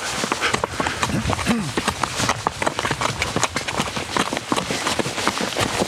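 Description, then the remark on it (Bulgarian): Steady, rhythmic hoofbeats of a ridden horse trotting toward a small tree uphill, a brisk two-beat clatter that continues throughout, with a brief voice heard faintly underneath. “Я да пробваме тръст, сега сме го каза това да направя асоциации.”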